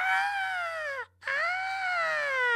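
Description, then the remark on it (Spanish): A single voice imitates a frenzied fan screaming at a concert: two long, shrill, sustained shrieks split by a brief breath, loud, with no other talk. “El ir a un concierto y gritar como idiota, ¡Ah!”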